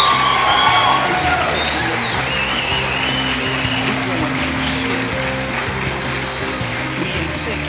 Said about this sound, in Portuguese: Gente, de coração, muito obrigado pela participação de vocês. Uma salva de palmas.